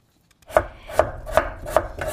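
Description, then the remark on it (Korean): A knife chops steadily on a wooden cutting board, five crisp, evenly spaced strikes, julienning radish into thin strips, with no voices. “그 도마 위에서 칼로 이렇게 채 써는 소리예요.”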